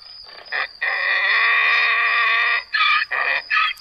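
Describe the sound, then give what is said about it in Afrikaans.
The donkey Hessie brays loudly: one long, drawn-out harsh call followed by three short, rhythmic bursts, with no voices or other sounds around it. “En Hessie die donkie balk lustig voort of so sy dink sing lustig voort.”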